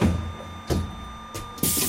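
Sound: bus doors closing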